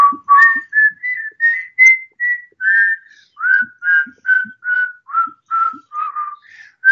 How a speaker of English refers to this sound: maybe we should whistle our song real fast, what should song? we? Um, ABC. Maybe not the whole thing.